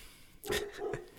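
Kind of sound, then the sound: animal, dog barking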